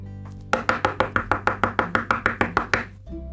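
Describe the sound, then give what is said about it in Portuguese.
Loud, rapid knocking on the door of Orihime's house at night, about fourteen sharp raps in a quick, steady rhythm, with no voices. “Nossa, Orihime, está batendo a porta.”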